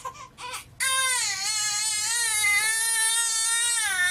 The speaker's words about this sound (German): Die Forschenden haben an 21 Babys mehrere Methoden ausprobiert, um diese zu beruhigen, wenn sie nachts aufwachen und schreien.